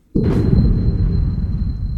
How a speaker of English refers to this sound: he and Teresa heard the loud crash of their back door being busted down.